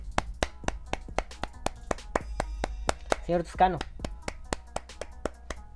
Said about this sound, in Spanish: Espero que no se oiga muy fuerte el aplauso y así les reviente los oídos, pero si no...